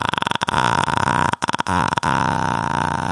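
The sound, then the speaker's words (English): A voice imitates a woman's creaky vocal fry, like a long burp: a loud, rattling vocal fry that stretches for about three seconds with a few brief breaks, no words spoken. “It sounds like a long burp or something.”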